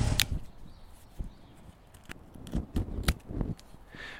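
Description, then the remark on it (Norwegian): Garden shears snip at rose bushes in a loose, unhurried rhythm, with several crisp cuts and faint rustling of branches between them. No one speaks. “Men det var altså rusling, mye luking av ugress kløpping eh, og, og rosebusker og bærbusker sånn i rolig tempo.”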